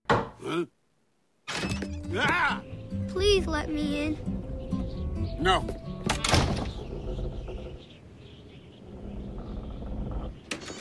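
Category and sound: impact, knocking on a door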